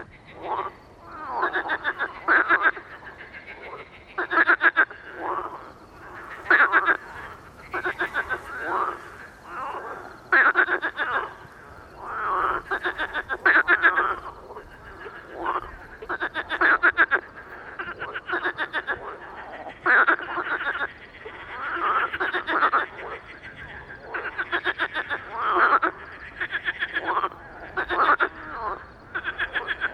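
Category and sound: animal, marsh frogs calling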